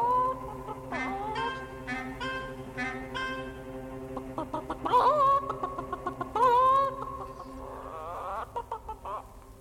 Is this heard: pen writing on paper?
no